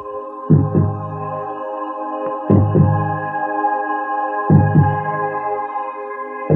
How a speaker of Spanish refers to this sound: Mi latido. Nuestro latido.